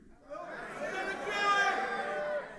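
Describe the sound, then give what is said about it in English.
An audience shouts all at once on a count of three, each person screaming out their own thing for a couple of seconds, a loud jumble of overlapping words with no single voice standing out, rising quickly and holding steady before cutting off. “On three, you're gonna scream out what your thing is.”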